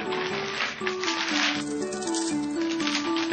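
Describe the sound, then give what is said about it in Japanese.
Chocoball chocolate candy balls rattle inside a box, shaken in a steady, dense clatter for a few seconds, fairly loud, with a faint melody underneath. “チョコボールも入ってるよね、もちろんね、これね。これ、これ多分すごい。この音はすご”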